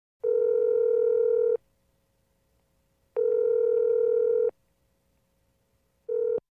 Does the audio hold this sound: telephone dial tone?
yes